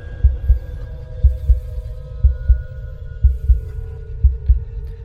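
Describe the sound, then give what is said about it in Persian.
A steady heartbeat thumps in deep, muffled double beats, lub-dub, about once a second, five beats in all, over a faint low hum with no voices. “یعنی همین که بی حرکت خوابیده بودم به صدای زربان قلبم و نبزم گوش میکردم تا حالا نشده بود صدای نبزم رو بشنوم اصلا مگه نبز صدا داره”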